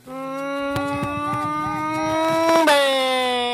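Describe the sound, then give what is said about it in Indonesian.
A person imitates the engine of a pickup truck hauling cabbages at Puncak revving, with a steady, buzzing hum that slowly climbs in pitch, then surges and drops as the gas is pressed and released, held loud for about three seconds. “Itu, itu mobil bak pengangkut kol di puncak tuh kayak gitu suaranya itu.”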